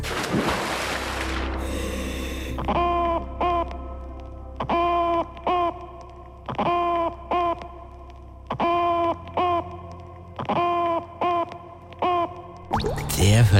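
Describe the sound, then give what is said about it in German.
Repeated short bursts of harmonic, clucking calls made by a fish underwater, arriving in regular rhythmic pairs over a low rumbling background, sounding like a hen clucking beneath the water. “Und jetzt habe ich noch einen Lieblingsfisch als wirklich allerletzten. Der klingt wie ein Unterwasserhühnchen.”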